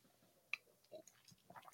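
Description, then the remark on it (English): A quiet sip from a drink: soft wet mouth clicks and a small slurp, followed by a brief louder clunk at the very end, with no talking. “But um, while we're here, let me take a sip.”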